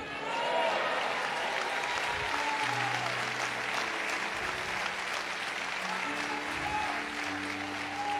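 A church audience claps steadily for about eight seconds in praise of God, dense and loud with no pauses. Faint sustained tones, like organ or keyboard notes, hum beneath the clapping.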